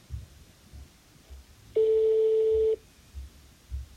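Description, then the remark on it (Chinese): A single steady electronic beep, about a second long, plays while a phone switches to a voice call. It sounds clearly at a mid pitch over a low, quiet background hum, with no talking. “喂，换语音吧，网太差了。”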